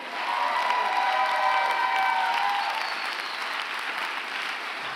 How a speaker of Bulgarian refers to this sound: А ако ръкопляскаш, ръкопляскай, като че наистина вярваш. Не ръкопляскай, като че пляскай за мене, ръкопляскай за него.